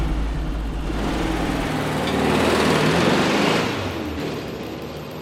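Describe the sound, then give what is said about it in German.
A car engine revs hard as it drives off fast, a broad roar swelling over a few seconds and then fading away, with no voices. “Dann hat die Tür zugeklappt, hat sich nach vorne gesetzt, dann sind die losgefahren, ganz schnell.”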